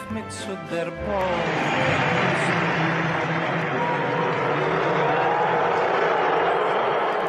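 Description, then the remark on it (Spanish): A large crowd roars loudly after a brief moment of talk, a dense, sustained wall of voices from many people booing and shouting 'lock him up' at US President Trump at the fifth World Series game between the Washington Nationals and the Houston Astros. “El presidente de Estados Unidos es recibido con abucheos y gritos de enciérrenlo en el quinto partido entre las naciones de Washington y los Astros de Houston.”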